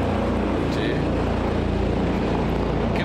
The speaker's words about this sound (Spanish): Es que ese helicóptero está pasando cada vez más abajo, ¿eh? No se pongan nerviosos. Pero va dando vueltas cada vez más bajitas.